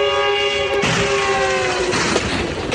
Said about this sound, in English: The sound of the fast approaching commuter train was the very last thing the LAPD officers wanted to hear